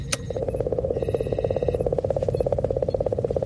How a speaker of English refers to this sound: Oh, it says uh, Comet 67P Rosetta reference tape. Oh, that's why we're here. Hit it.